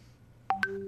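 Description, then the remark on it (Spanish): A small bell sound effect rings twice in quick succession, two bright struck tones with the second pitched higher, their ringing lingering briefly after a quiet start. “Ahora un timbre”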